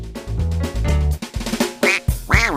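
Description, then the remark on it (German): Several loud, nasal duck quacks come in quick succession without any talking, ending in a longer, wavering quack. “Außerdem gibt es Pfeifen, die das Quaken einer Ente täuschend echt nachahmen und auf diese Weise andere Enten sozusagen herbeirufen.”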